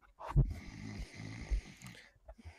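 A person asleep in a bathroom snores loudly in a single long, rumbling inhale with a guttural rattle, muffled through the bathroom door, followed by a softer breath.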